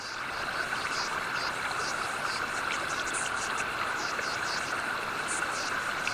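Underwater recording of fish making repeated short chirps and squeaks over a dense, steady hiss, the calls overlapping at an irregular, busy pace.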